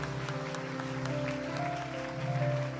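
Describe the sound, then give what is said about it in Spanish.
A crowd applauding the Lord, with dense, steady clapping that continues through the whole stretch, layered over a sustained tonal hum like held keyboard notes. No one speaks. “Fuerte, fuerte, fuerte ese aplauso a nuestro Señor.”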